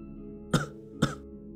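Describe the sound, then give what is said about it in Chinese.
Two short, soft coughs from inside a room, about half a second apart, each a brief rough burst over a low, steady background hum, with no voices. “身后的屋里传出隐约的一声咳嗽。”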